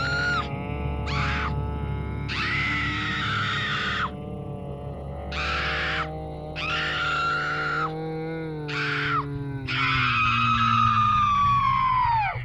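A young woman screams in repeated anguished bursts over a low droning background, her cries rising and breaking as if struggling, ending in a long, strained wail.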